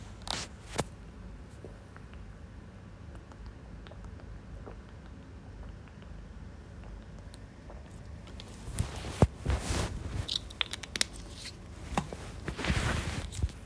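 Water is poured and sipped after a long quiet stretch with a couple of soft clicks; the last few seconds carry irregular splashy, clinking bursts of moderate loudness, with no talking.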